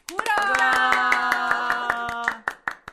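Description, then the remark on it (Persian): A group claps hands in a quick, steady rhythm while voices hold a long sung or chanted note over the beat; the tone stops and a few last scattered claps follow. “خب باری کلا کف زدنتونم دیگه اتوماتیک شده”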